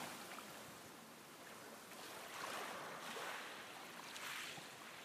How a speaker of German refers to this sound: Mit jeder Brise und jedem Anbranden der Wellen werden dein Körper und dein Geist gereinigt und von allem Überflüssigen befreit.